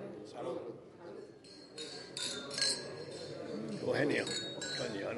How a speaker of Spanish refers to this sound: Bueno, pues ha llegado el momento de levantar la copa del cava extremeño para brindar por el, trabajo premiado y por los tres galardonados. Salud. Salud.